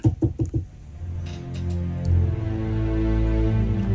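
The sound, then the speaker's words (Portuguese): Four quick, soft knocks on a door sound in an even rhythm at the start, then fade into a steady low humming drone that continues to the end. “ouvi aquelas batidinhas na porta.”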